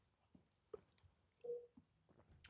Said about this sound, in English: I'll take a sip.